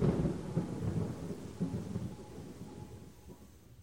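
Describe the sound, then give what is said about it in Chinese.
Heavy rain drums on a tin roof in a dense, continuous clatter with a deep rumbling undertone, loudest at the start and easing slightly toward the end. No one speaks. “在铁皮屋上，会有一种非常奇妙的声音，是我从来没有听过的一种声音，就它非常的清脆，然后呢，你甚至觉得连雨连水滴都是有弹性的，它会在。打下去的时候又会弹起来，就很像无数颗乒乓球落在了铁皮屋上。”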